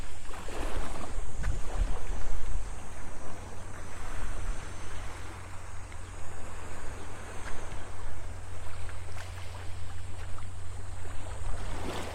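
Steady morning ocean waves wash and hiss continuously on the seashore at Hayama, Japan, on a sunny day with a sea breeze, with a low rumbling undertone and gusts of wind buffeting the microphone; no one speaks.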